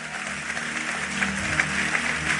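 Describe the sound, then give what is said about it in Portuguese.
An audience at a church service applauds God, breaking into steady applause, a dense wash of many hands clapping at an even level, with a faint low hum of music or murmuring beneath it. “Aplauda ele.”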